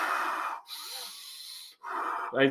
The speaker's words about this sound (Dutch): Simpel gezegd is dat je, eh, wat is 30 tot 40 ademhalingen doet. Heel diepe, heel intensief, dat je echt je longen goed vult. Goed uitademt, goed vult. Snel en hard, met kracht